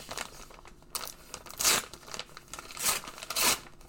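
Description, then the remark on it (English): The paper card packaging of a Match Attax mega multipack being torn open, with several loud ripping bursts and crinkling between them, no voices present. “Let's check out this mega multi pack.”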